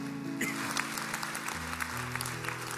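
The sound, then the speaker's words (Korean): A church audience claps steadily after a prayer to give glory to God, a dense crackling wash of many hands, while sustained keyboard chords play underneath and shift pitch partway through. “우리에게 응답하신 하나님께 큰 박수로 영광을 올려드리겠습니다.”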